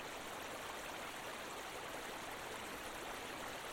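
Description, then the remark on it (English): Steady rushing water of a creek spilling into a waterfall nearby after dark: a continuous babble of flowing stream with a broad hiss like water tumbling over a drop, unbroken and even throughout, with no voices. “A creek burbles nearby, spilling into a waterfall.”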